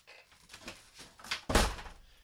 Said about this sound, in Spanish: Y cerraba la puerta, ¿ves? O sea, había que añadirle sonido a ese esa novela a través de radio para crear los efectos que se estaban hablando en el contenido de esa novela, ¿no?